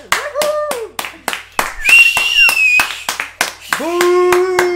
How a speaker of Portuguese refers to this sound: Uh, obrigado por estes aplausos. Está muita gente aqui, estão milhões,